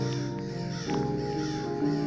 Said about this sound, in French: J'entends le corbeau qui chante.